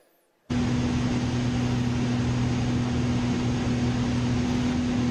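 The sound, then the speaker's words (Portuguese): After a brief silence, a loud, steady roar of airplane cabin engine noise starts abruptly and holds constant, with a low droning hum running underneath the broad rushing sound. “Avião normal, Agora ele vai baixar a despressurização e fazer umas manobrazinhas com ela.”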